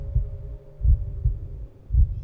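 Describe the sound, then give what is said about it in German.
A deep, muffled heartbeat, one's own heart pounding in the ears, thuds steadily in low, booming pulses, about four beats in quick succession over a faint steady hum, with no voices. “Außer dem staccatoartigen Trommeln meines eigenen Herzschlages, das ich in meinen Ohren festgesetzt hatte.”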